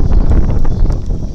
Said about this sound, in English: ooh, got windy there.